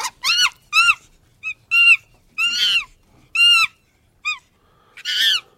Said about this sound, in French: Alors là, il faudrait que vous traduisiez, puisqu'il s'agit d'un chimpanzé qui, qui, parle. Alors que dit-il exactement Alors là, c'est un jeune chimpanzé qui manifestement n'a pas l'air très content. Il est un petit peu frustré.